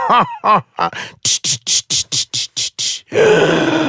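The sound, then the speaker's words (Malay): A voice mimics a helicopter's rotor blades as if they are about to break off: a few groaning vocal swoops, then a rapid run of about nine breathy, chopping bursts in steady rhythm, ending in a sustained rough, noisy whoosh. “Ah, bunyi kipas dia. Kipas dia nak terputus.”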